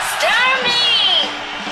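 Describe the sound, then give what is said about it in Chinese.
A talk show audience cheers and whoops, welcoming the host at the start of the Daming Talk Show, over a dense wash of noise, with several high, rising and falling shouts overlapping throughout. The sound stays loud and steady for under two seconds. “gentlemen，现在是大明脱口秀时间，掌声欢迎我们亲爱的”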